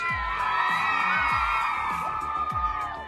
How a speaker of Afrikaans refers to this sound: Kom ons gee 'n lekker applous vir ons borgers ouens.